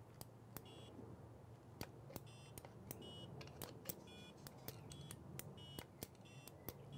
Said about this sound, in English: So depending on the direction that I push it, I've got lights lighting up and I've also got uh, four little uh, tones beeping.